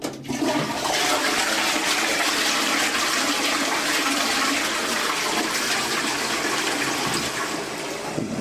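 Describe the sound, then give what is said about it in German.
A toilet flushes away feces, urine and spat-out toothpaste in one long, loud, steady rush of water lasting several seconds, with no voices present. “Auf jeden Fall werde ich jetzt erstmal Kot, Urin und ähm, äh, ausgespuckte Zahnpastereste der letzten 24 Stunden entsorgen.”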